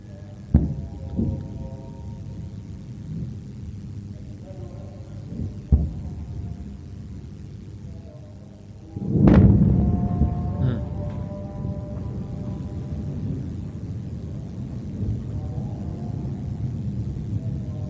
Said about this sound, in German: Wow, some big flashes going on, big explosions. Wow.